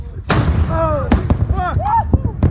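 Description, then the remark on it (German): A huge bang from a volcanic eruption, filmed on a beach as people watch the ash cloud rise, bursts out and rolls on as a low rumble, while several people cry out in startled exclamations over it. “Die Leute sehen den Vulkan, sehen, wie die Aschewolke aufsteigt. Und dann kommt ein riesiger Knall.”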